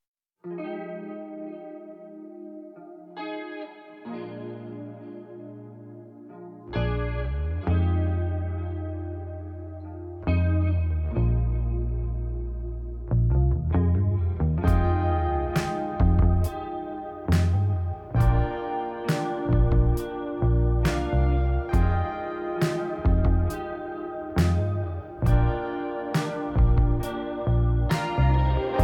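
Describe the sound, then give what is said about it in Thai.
A recorded song plays on its own, opening with layered chorus-soaked synth tones that build in sections before a steady beat with sharp percussive hits kicks in around the midpoint, loud and full. “ก็ถ้างั้นเรามาเปิดเพลงฟังไปทีละท่อนไหม”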